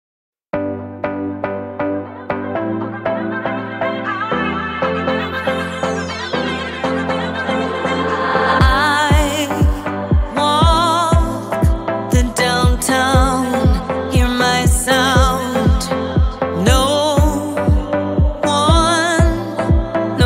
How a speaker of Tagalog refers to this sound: Please enjoy listening to this music as this will relate to our topic for today.